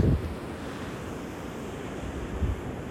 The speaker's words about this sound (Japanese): なんか波が来て消えていったら次のがまた来るんでそれを見てるとうんなんかいつまででも見てしまうんですてしまいますね。